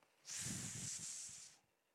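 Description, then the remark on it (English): A person makes a long, sustained hissing sound with their mouth, imitating the snake of the creation story, lasting over a second before trailing off into quiet. “But oh, what happens next? The snake.”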